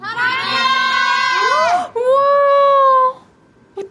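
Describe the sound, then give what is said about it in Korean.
A crowd of fans gathered outside on a cold day, holding Olaf balloons at a singer's ninth debut anniversary, shouts together on a count of three in two long, loud bursts of high, overlapping voices held almost in unison, with a brief break between them before the noise drops away to near quiet. “우리 밖에 와준 올라프 풍선을 잔뜩 들고, 하나, 둘, 셋 하면 아무 말이나 해주세요. 하나, 둘, 셋!”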